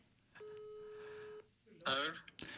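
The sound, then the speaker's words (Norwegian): A single steady telephone ringback tone sounds for about a second over a phone line during a call to Se og Hør, then goes quiet before a voice answers and starts talking. “så tenker jeg vi burde kanskje ringt Se og Hør og bare høre hvordan, bare om de vil si noen ting om betalingsjournalistikk i det hele tatt.”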